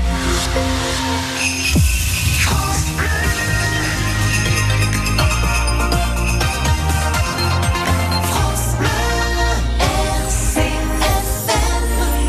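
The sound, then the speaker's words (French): The church bells of Saint-Jean ring out at 11 o'clock in a dense, overlapping peal, with repeated strikes whose bright metallic tones hang and blend together throughout, steady and loud with no voices. “Et vous entendez les cloches de Saint-Jean Il est 11h.”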